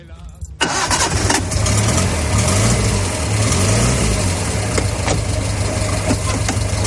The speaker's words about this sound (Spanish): Marcó la evolución del país en una época llevó a las clases medias de vacaciones y se convirtió en uno de los pilares del desarrollismo económico de aquellos años. Fíjate cómo sonaba el coche que cambió un país entero.